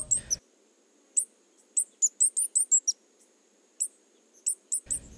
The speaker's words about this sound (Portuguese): É, as saídas têm esse cantinho, eu brinco, saireis, esses cantinhos agudos, bem altos. E essas duas que vocês ouviram aí, a primeira é essa aí, ó, é a saíra pérola